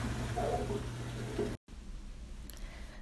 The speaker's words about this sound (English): This is the sound of my dishwasher going through its cycle and it is splashing water around on the inside and rattling the dishes a little bit.